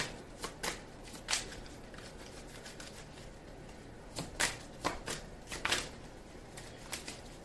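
Tarot cards being shuffled for a Gemini reading for January 2022, in soft, crisp bursts of riffling and snapping, arriving in short irregular clusters with brief pauses between them, quiet overall and with no one speaking.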